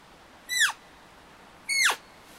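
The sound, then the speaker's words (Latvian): A person, turned slightly away from the microphone, imitates a goat kid's bleat: two short, high, squeaky calls with a downward-sliding end, separated by a pause of about a second, with no talking around them. “Uh, viens, viens tonis ir, es bišķi pagriezīšos prom no mikrofona, tonis viens ir tā kā kazlēna pīkstiens,”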